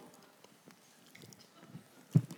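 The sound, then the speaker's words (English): Someone mimics a cow in a field chewing its cud with soft, rhythmic mouth clicks and wet smacks, building to one louder smack at the end. “So you can, you know, if you don't know what chewing the cud is, if you look out in a field and a cow's going,”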